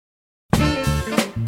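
After a brief silence, a dog barks loudly, firing off a rapid run of three or four harsh barks in quick succession.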